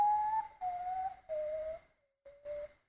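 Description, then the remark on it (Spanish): A cacuy (potoo) bird call: five mournful whistled notes, each a little lower than the last, separated by short pauses, clear, with no one speaking. “Ese es el sonido del cacuy.”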